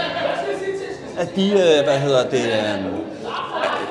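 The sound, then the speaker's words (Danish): A man speaks hesitantly in the foreground while a steady murmur of other voices chatters underneath, with occasional bits of laughter rising from the background conversation. “vi beklager lyden, der er, lidt, der er meget øh, sjov og blade og, og snak i baggrunden.”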